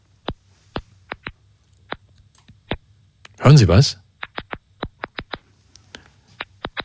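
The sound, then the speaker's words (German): Sharp, tiny clicks from stressed tomato or tobacco plants, recorded with microphones held to them, pop out irregularly, around a dozen and a half, over a faint low hum; a brief spoken question interrupts midway. “Das sind so kleine Klickgeräusche, die dort aufgenommen worden sind.”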